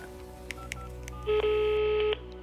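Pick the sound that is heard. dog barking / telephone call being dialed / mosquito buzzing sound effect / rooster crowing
telephone call being dialed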